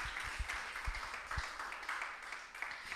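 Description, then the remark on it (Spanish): A church audience applauds Christ during a sermon, steadily for about three seconds, a dense wash of many overlapping claps with a few sharper individual hits, holding an even level throughout. “Un aplauso a Cristo por su bondad.”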